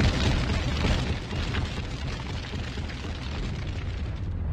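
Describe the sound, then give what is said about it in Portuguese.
A bomb explosion sound effect, called a MOAB: a loud, heavy blast that rolls straight into a dense, sustained roar of low rumbling and crackling debris, staying loud for several seconds with no voices. “Solta Moab, fogo no muturo, Moab, fogo no muturo.”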